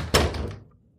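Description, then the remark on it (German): A door slams shut behind a woman as she leaves a hotel room, a single heavy thud that rings out briefly and fades into quiet. No one speaks. “Die Tür knallte hinter ihr ins Schloss.”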